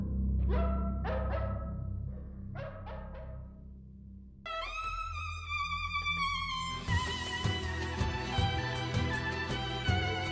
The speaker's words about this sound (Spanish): de la presa pareció oírse ladrido de otro perro.